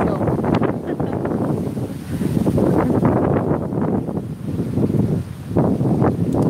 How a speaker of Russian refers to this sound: или здесь ветер поднимается